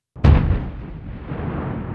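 A single heavy explosion bursts out suddenly with a deep, booming low end, then a long rumbling roar that lingers and trails off without fading fully. No voices are present.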